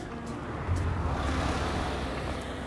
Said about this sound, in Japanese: はい車通り過ぎました